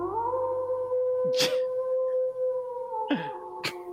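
A dog howls in a long, steady, sustained tone that barely wavers, with a few brief noisy bursts cutting in over it; fairly close and moderately loud.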